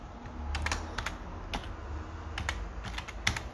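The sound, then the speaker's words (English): Steady typing on a computer keyboard as someone logs into a PC: quick bursts of sharp key clicks in irregular clusters over a low background hum, with no one speaking. “Sorry, I'm just logging into my PC.”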